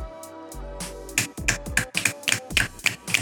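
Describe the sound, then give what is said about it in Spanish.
A quick series of sharp, crisp finger snaps, around nine in a fairly steady rhythm, each a bright click over a low background hum. “Chasquidos. Chasquidos.”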